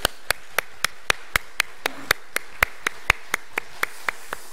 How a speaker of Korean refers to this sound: 우리 교회 안에 사실 함께 격려해야 될 식구들 너무너무 많은데 어, 우리 자신에게든지 또 우리 성도님들께든지 우리 같이 격려와 사랑의 박수 한번 드리도록 하겠습니다. 같이 한번 박수하겠습니다.